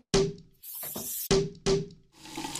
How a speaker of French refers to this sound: Bon, j'ai encore quelques instruments et sont bizarres à te faire écouter. On y va On y va des clochettes, des serpentins, des pétards, un bouchon de champagne,